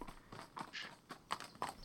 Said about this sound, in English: it's the sound of some clopping. You see a huge black deer with giant white X for antlers approaching. Then you notice there's an all black carriage in tow behind, guided by a slender man.